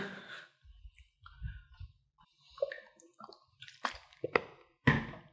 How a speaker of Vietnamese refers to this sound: vô miếng nước cả nha vô miếng nước